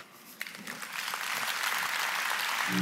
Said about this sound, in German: Applaus